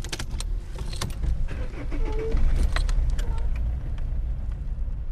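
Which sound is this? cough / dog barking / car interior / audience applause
car interior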